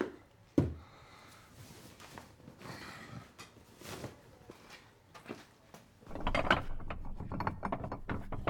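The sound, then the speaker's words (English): Metallic clicks and creaky turning of a shower knob as a man crouched in a bathtub fiddles with it, starting with a sharp clack, then scattered ratcheting fiddles and a louder rattling burst near the end. “Rubian is crouched down in the bathtub, fiddling with the shower knob.”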